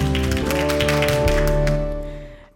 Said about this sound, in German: Klatschen vom Balkon.